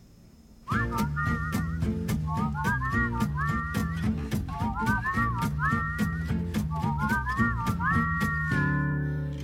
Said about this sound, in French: Puis nous, on s'en va écouter une chanson, en fait, du groupe que joué hier